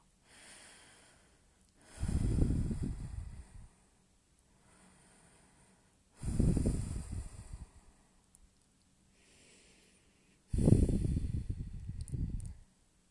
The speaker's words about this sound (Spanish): Vamos a respirar con la boca abierta y a, exhalar con la boca abierta, así. para ventilar bien nuestro cuerpo.